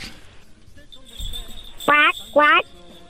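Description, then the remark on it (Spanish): A child's voice imitates a duck with two loud, nasal quacks in quick succession, standing out clearly over quiet background noise. “¿Puedes hacer el sonido de un pato?”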